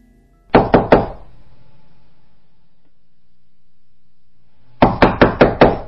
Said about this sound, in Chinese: 这个时候，突然传来砰砰的敲门声。